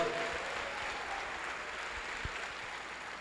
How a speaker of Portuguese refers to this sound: Então, vamos agradecer ao Senhor aí com um aplauso.